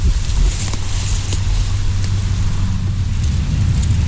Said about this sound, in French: Oh, les avions, putain Trop fort.